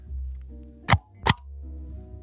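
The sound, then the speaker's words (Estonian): Two sharp thuds of a rubber stamp pressed down for a test print, about half a second apart, standing out clearly over a low steady hum with no talking. “oota, ma lasen mikrisse templi häält ka vaata.”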